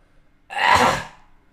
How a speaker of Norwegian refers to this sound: Det er den, spesielt den hosten der. Ja, den kom akkurat nå. Det gjorde faktisk det.